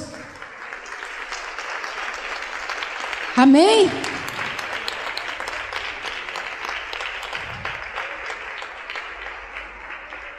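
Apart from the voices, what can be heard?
audience applauding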